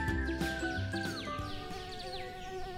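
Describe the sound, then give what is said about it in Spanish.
Mosquitoes whine in a steady drone in a garden at night, holding throughout, with higher chirping sweeps rising and falling over the top and no voices. “Tengo frío, me pican los mosquitos y quiero ir adentro con los demás.”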